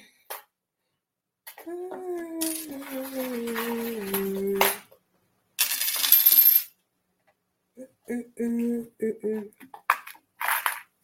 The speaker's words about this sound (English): And so let's see what chimes we got for you.